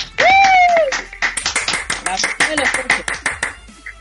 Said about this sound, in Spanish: Bueno, un aplauso, un aplauso. Bravo, bravo.